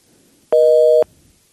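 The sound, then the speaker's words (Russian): A single loud telephone busy-tone beep after a dropped call, a steady electronic hum lasting about half a second, standing alone against faint background noise with no talking. “Ну, ничего, бывает, срывается, ничего страшного.”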